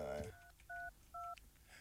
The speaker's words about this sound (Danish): Nu ringer vi til... Øh, frøkenklokken.